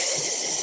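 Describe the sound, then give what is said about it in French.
A harsh, hissy scrape of a piece of packing-box polystyrene rubbed gently against the green scouring side of a sponge, one steady squeaky stroke lasting under a second, fairly loud with no voices. “Tu prends le, côté vert de l'éponge au-dessus,”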